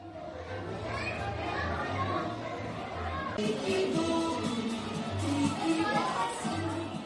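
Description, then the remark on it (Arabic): A crowded fourth exhibition hall for children and the arts, filled with children and their parents. It displays models of dolls and cartoon characters such as the Smurfs and Snow White. Children play and a crowd chatters, with voices overlapping continuously at a steady, fairly loud level and a hum of reverberant hall noise. “الصالة الرابعة كتير معجوقة”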